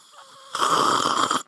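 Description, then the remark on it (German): A person imitates loudly slurping the rest of the soup out of a plate instead of spooning it: a single sustained, noisy sucking sound lasting about a second, with a rough, hissing texture, heard on its own with no talking. “Bei uns zu Hause wurde der Rest Suppe, also ist hauptsächlich mein Opa, der Rest Suppe wurde nicht gelöffelt, sondern rausgeschlurft aus dem Teller, so.”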